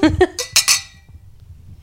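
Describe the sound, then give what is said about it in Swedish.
Glasses clink together twice in quick succession in a toast, bright, right after a brief burst of voices; a quiet hum lingers afterward. “Hörni, är det inte dags att vi tar en liten skål?”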